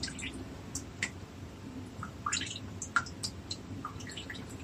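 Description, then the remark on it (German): Water drips and trickles irregularly from a bowl lifted out of water after soaking in it for a while, with small splashy droplets falling at an uneven rhythm over a low background hiss. “Also wer sich jetzt wundert, warum da so viel Wasser rauskommt aus, nach der kurzen Zeit, die stand schon eine Weile.”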